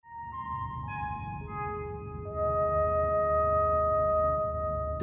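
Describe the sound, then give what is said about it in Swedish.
A famous five-note motif from a 1977 film, also used in other films such as Moonraker (1979), rings out as sustained, horn-like tones. Each note enters in turn and holds, building into a layered chord over a steady low rumble, with no talking. “den här eh, ljuds, fem toners ljudsekvensen är ju väldigt ikonisk med den här filmen.”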